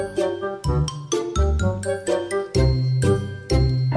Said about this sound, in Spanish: Claro, mientras ustedes escuchan el fondo musical, por supuesto.